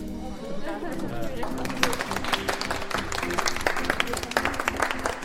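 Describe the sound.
A crowd bursts into sustained applause concluding the first distribution of the Surprenante Épicerie grocery since the rentrée, on 28 September: dense rapid clapping that builds after a brief start and stays steady, with murmuring voices mixed underneath.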